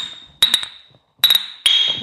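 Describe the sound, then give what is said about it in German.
Glasses clink together in a toast in Herborn, three bright, ringing strikes with a short pause between them, each leaving a clear, high tone that slowly fades, fairly loud. “Ja, also Prost erstmal. Prost.”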